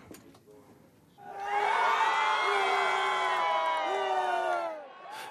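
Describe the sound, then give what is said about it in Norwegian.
A large crowd of cricket fans in the streets of Kabul cheers and shouts loudly while following Afghanistan's Cricket World Cup matches on television, many voices overlapping in a sustained roar with high whoops, rising suddenly after a brief quiet stretch and fading slightly at the end. “Det jubles i Kabuls gater.”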